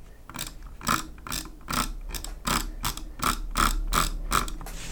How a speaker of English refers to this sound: For example, let me show you me drag clicking. As I have here, I have the Razer Death Adder V2. So with this mouse, what I can do is